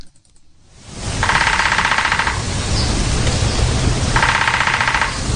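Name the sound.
woodpecker drumming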